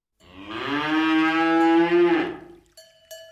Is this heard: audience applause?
no